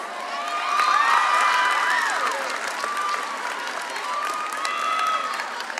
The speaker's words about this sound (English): I don't know why you're cheering. I don't know why you're cheering.